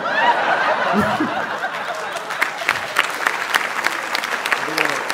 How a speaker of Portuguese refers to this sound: Eu sei. Esse aplauso vai custar caro para vocês, mas vocês falaram, ele merece o menino.